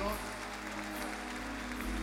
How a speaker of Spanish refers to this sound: En el nombre de Jesús, dale el mejor aplauso que le hayas dado al Señor.